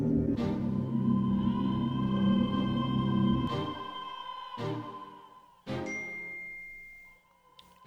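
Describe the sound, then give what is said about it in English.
A computer notification ding sounds several times in a row, each bright, ringing tone starting sharply and fading slowly, with no one talking. “That was my computer, and I don't know how to make it not do that.”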